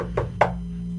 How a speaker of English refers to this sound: Uh, the wizard goes over and knocks on the sphere like like you would on a door.